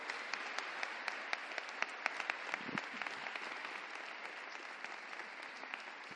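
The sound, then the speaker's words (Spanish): An audience applauds steadily for about six seconds, a dense wash of many hands clapping with sharper individual claps popping out, holding an even level throughout with no talking. “Tengo que dar, pedirle un aplauso, por favor.”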